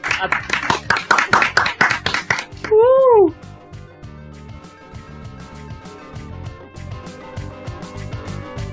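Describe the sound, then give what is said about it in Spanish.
A quick burst of loud hand clapping for about two seconds, followed by a sliding whistle-like tone and soft background music. “Un fuerte aplauso, por favor.”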